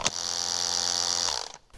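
A kitchen mixer motor with three speed settings hums steadily on its first, lowest speed, an even whir pitched at a low F with a high whine that runs for over a second and then cuts off.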